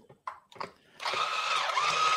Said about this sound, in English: Okay, here goes the blender again. Get ready.